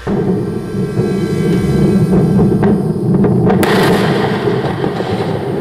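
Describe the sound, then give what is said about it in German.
A SpaceX rocket carrying the Israeli geostationary satellite Amos 6 explodes on its launch pad at Cape Canaveral Air Force Station, Florida, during fueling, after an anomaly at the second-stage oxygen tank: a loud, continuous deep roar rumbles throughout, broken by several sharp cracking blasts, with no voices heard. “Die genaue Ursache für die Explosion ist noch unbekannt.”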